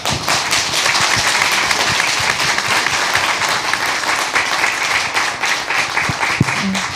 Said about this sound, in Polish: Także dajcie mu jeszcze raz brawa, takie porządne.